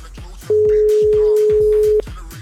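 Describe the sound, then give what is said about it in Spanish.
A single steady telephone ringing tone as a call is placed back to someone, one loud, even beep lasting about a second and a half, sounding over a quieter rhythmic background before cutting off abruptly. “cógenos el teléfono, por favor que tenemos un mensaje para ti.”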